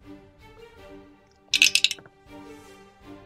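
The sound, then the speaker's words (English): Dice clatter across a tabletop, a burst of rapid clicks lasting under a second, then another brief rattle near the end over a faint background hum. “Oops, wrong dice.”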